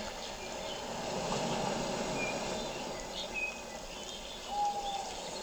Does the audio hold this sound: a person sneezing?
no